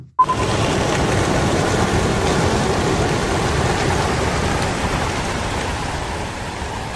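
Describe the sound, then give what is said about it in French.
A dense, roaring flutter of many Belgian racing pigeons' wings bursts in at a release in Aurillac in 2017 and continues steadily, loud, like a rushing wash of noise with no voices. “On entend justement derrière le son euh, un lâcher de pigeons belge à Aurillac en 2017.”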